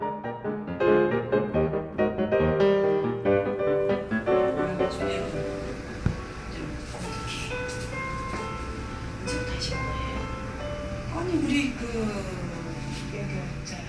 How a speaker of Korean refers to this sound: 이곳은 조용하고 깨끗한 실내 공간에 대여섯 개의 작은 방들이 마련돼 있는 피부 관리실인데요. 나란히 붙어 있는 관리실로 잔잔한 음악 소리가 새어 들어가고 관리실 문 틈으로 여성들의 말소리가 새어나옵니다.